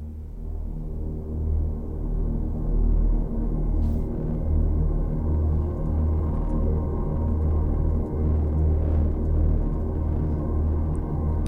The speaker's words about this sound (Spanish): Pero se llama … y suena así.